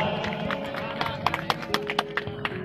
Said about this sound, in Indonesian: atur nuhun pisan tepuk tangan dulu untuk ruang kampus mana